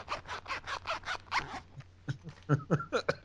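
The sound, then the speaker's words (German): A clothing zipper being pulled back and forth several times, quick rhythmic rasping strokes followed by a few shorter, sharper tugs. “Ich habe keinen Reißverschluss.”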